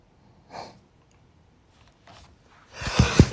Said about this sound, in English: Oh, I'm gonna sneeze.